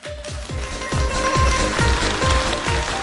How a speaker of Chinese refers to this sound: 听懂的掌声再次鼓励一下。